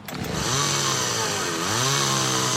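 A chainsaw runs loud, its engine snarling steadily and revving up and down in pitch for a couple of seconds, with no voices.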